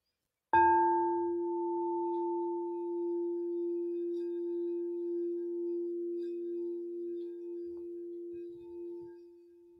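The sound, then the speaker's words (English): A singing bowl, without its stand, is struck once, then rubbed lightly so its deep, steady tone swells and sustains with a softer ringing overtone, humming continuously for about nine seconds with gentle wavering in loudness. “This bowl, when I really like start spinning and, and going into it deep, it is so powerful.”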